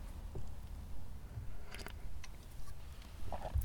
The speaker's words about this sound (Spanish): Perdón, fue una pausa para trago de café y un poquito de drama para, que, para reflexionar.